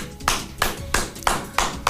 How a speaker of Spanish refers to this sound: Un aplauso, por favor, a nuestro gobernador, a nuestra maravilla.